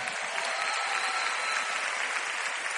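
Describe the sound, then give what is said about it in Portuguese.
An audience at a church service applauds young men who are dating, a dense, steady wash of clapping that holds at an even, fairly loud level for the whole few seconds with no voices standing out. “Teve gente que começou no outro dia, vamos dar uma salva de palmas para esses meninos.”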